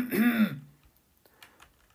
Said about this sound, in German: der das Gespräch mit angehört hatte, um im Notfall zu schlichten, räusperte sich hörbar.